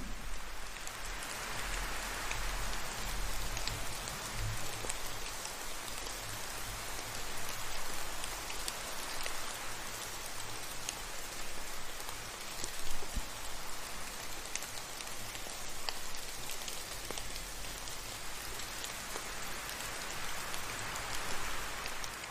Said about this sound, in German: Etwas später wird auch der Regen und der Wind sich wieder beruhigen. Langsam in die Ferne ziehen. Leiser und sanfter werden.